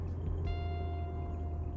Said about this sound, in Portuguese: E agora sim falando e dando uma volta de carro no entardecer porto-alegrense, eu meio que aquietei um pouco a minha inquietação.